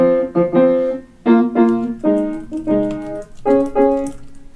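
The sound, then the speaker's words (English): A piano plays a rock song's chord progression alone to demonstrate its chords, striking loud chords in short repeated pairs with a driving, syncopated rhythm; each chord rings briefly before the next. “I'll, I'll, go back over to the piano real quick to, to show you.”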